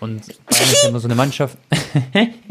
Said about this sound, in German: Gesundheit, Bro. Oh. Geht's dir gut? Ich habe so zu kämpfen gerade mit Heuschnupfen, Bro.